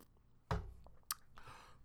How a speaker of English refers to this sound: A sip of water. Okay, stay hydrated, y'all.